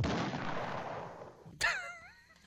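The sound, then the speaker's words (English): A cartoonish cannon or bazooka blast: a broad, roaring boom that rumbles and fades, then a sharp crack followed by warbling, whistly tones trailing off. No talking. “Was that a cannon or is that like a, a bazooka?”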